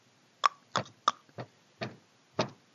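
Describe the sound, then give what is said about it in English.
Six sharp knocks on a wooden door of a house in a loose, uneven rhythm, fairly loud, with quiet gaps between them and no one talking. “I'm going to knock at the door.”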